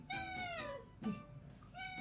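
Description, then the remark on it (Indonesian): A black female cat meows: a long, falling meow, then a brief chirp and another drawn-out cry starting, all clear and fairly loud with no talking. “Kok setiap kongkos selalu kucing hitam tuh?”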